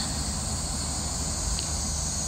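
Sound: cicadas chirping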